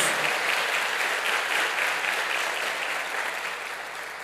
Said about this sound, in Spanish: Dele fuerte ese aplauso al que vive por los siglos de los siglos.